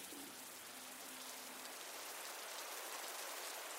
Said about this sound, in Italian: Il getto della doccia si mescola allo scrosciare della pioggia lontana.